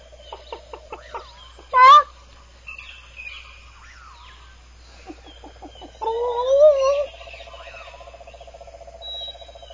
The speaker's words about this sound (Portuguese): Isso, eu estou aqui com a galinha, em frente aqui a, a jaula das galinhas. Vamos ver se ela. Deixa eu chamar uma galinha aqui, ó.